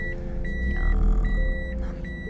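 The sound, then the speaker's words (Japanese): A car's reversing alarm beeps steadily and fairly loudly in a regular rhythm of short electronic tones, over the low rumble of an idling engine, as the car backs into a house's parking space. “来ましたバックの時間です”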